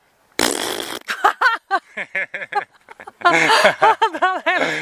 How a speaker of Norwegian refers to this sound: Det er fising. Så vi, vi skulle kjøpe prompeputer.